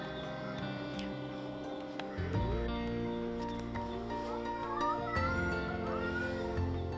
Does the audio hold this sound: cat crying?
yes